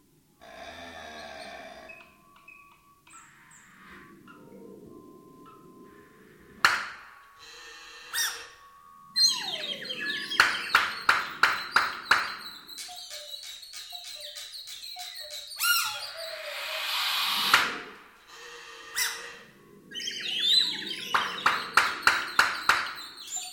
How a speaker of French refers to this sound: Cette œuvre contemporaine a beaucoup surpris les élèves. Nous vous proposons tout de suite un extrait.